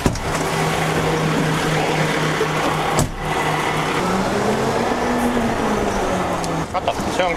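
A garbage truck drives along with a steady, loud engine drone and rumble, its low hum shifting slightly in pitch as it moves, with a brief dip near the middle.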